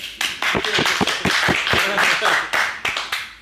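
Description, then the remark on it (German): A burst of clapping, with sharp, irregular claps from several hands overlapping for a few seconds at a steady, fairly loud level, alongside some vocal sounds. “Dafür dürfen wir mal klatschen, komm.”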